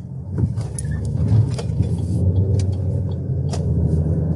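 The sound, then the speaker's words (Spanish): Steady low engine rumble of a car driving as the driver merges into traffic, with road noise and occasional brief clicks and thumps from inside the cabin; no talking. “Ah, aquí, aquí voy a poder meterme.”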